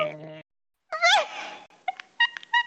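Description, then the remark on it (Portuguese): A voice mimics a squeaking school classroom chair: a loud, high-pitched creak that wavers up and down, then a few short squeaky chirps. A brief low hum comes before it. “A cadeira faz aquele.”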